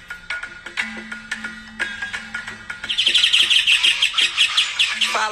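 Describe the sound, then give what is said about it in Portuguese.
Birds sing and chirp steadily on a rural farm in the southern Pantanal, Brazil, with sharp repeated calls early on and then a dense, rapid trilling song that fills the second half, clear, with no talking. “Aves surpreendentes podem ser observadas em um sítio como esse.”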